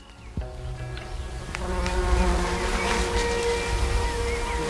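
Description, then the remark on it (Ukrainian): A large violet-black carpenter bee, a Red Book-listed species, buzzes steadily, a low droning hum with shifting pitch that swells after a sharp click near the start, over faint outdoor background noise. “Називається бджілка, чи то тесляр, чи тесляр.”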